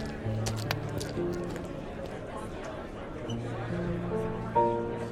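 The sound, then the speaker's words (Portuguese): Heavy footsteps of a man in boots taking long strides up the stairs leading to a university administration office at the Federal University of Goiás thud in a steady rhythm, over a constant murmur of many students chattering in the background. “quando, numa das escadas que conduzem à Pró-Reitoria de Assuntos da Comunidade Universitária, ou a PROCON, da Universidade Federal de Goiás, a UFG, um sujeito com botas e de passos largos em meio aos ruídos de estudantes subia os degraus.”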